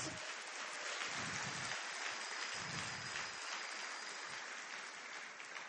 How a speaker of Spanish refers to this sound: Socios, démosle un fuerte aplauso a los invitados.